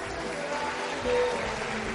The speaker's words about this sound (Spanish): Le demos un gran aplauso al elenco de bailarines, bailarinas